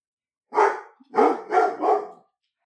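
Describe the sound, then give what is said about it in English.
A dog named Boris barks four times, loudly and with no voices: one bark, a short pause, then three more in a quick, evenly spaced run. Each bark is full and mid-pitched. “Okay, now that Boris is quiet”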